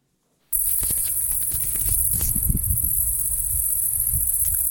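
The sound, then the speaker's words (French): A steady, high-pitched insect drone of crickets and grasshoppers fills the night air continuously, as picked up in nocturnal recordings of the Vigikiro bat-monitoring programme, with scattered soft clicks and low rustling beneath, no voices present. “Qui produit ce bruit Vous avez des idées Lorsque les scientifiques du programme Vigikiro ont réalisé qu'ils enregistraient au passage des criquets et des grillons, ils ont eu l'idée de lancer le programme SON”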